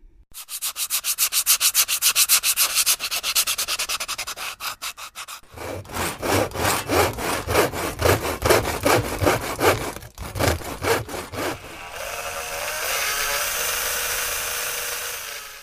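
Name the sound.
sawing wood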